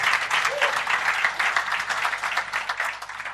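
A crowd applauds steadily, dense overlapping claps filling the whole stretch at a fairly loud, even level, with a faint voice briefly audible underneath.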